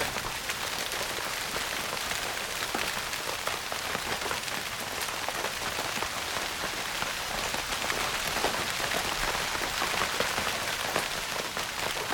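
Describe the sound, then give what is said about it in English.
Steady rain patters on a taut tent surface, a dense, even hiss of countless drops that never lets up and carries no voices. “I had a phase where I slept with a soundscape, rain in a tent.”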